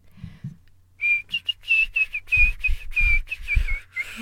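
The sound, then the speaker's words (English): A person whistles a short song melody, a string of clear wavering notes in a quick rhythm, with some low thumping and breathy noise underneath. “oh, I'm whistling evil, even worse than normal tonight.”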